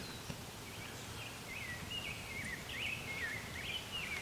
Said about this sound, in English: the Nashville warbler here.